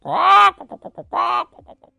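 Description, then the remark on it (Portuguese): A voice imitates a rooster crowing: two drawn-out, strained calls, each trailed by a quick run of short clucking bursts, loud, with no other talking. “E o galo cocoricava.”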